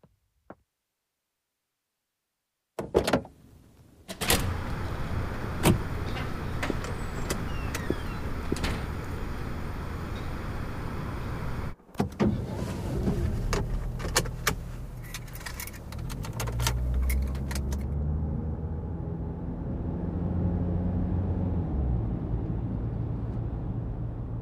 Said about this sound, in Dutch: Um, het is nu kwart over vijf eh, en ik ben net wakker en ik stap zo in mijn auto richting het AMC in Amsterdam, eh, waar ik werk.